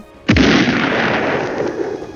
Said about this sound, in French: a produit une énorme explosion qui a détruit les toilettes.